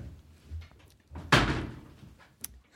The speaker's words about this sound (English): Okay, I'm going to open the door.